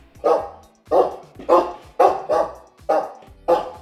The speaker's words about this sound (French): ce chien qui est un berger allemand, qui a probablement déjà gardé les moutons en Allemagne.